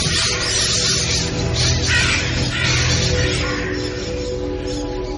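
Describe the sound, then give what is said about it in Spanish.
A large flock of black birds, crows, circles in the sky near the top-floor terrace of the General Motors building by Columbus Circle, cawing continuously, many harsh overlapping calls forming a loud, dense racket that fills the whole stretch without pause. “Cerca de la terraza del último piso del edificio de General Motors me fijo en una bandada de negros pájaros que dan vueltas en el cielo.”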